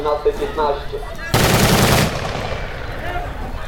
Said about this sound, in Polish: Strzelali pociskami zapalającymi po strzechach, podkładali Ogień wewnątrz budynku.